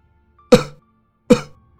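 A grandfather's hoarse cough sounds twice, two rough, raspy bursts about a second apart, each fading quickly into silence with no talking around them.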